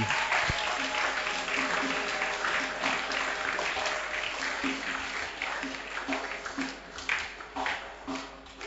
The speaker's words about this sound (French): Acclamons très fort pour le nom du Seigneur.